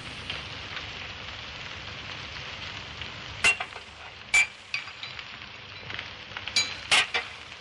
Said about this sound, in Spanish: Ya es la hora. Voy a darte las gotas. Las vierte en una copa de cristal con agua y remueve el contenido.